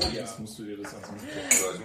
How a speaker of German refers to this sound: So, ich muss mal ein Bier aufmachen. Sorry, tut mir leid, es könnte ein bisschen laut werden.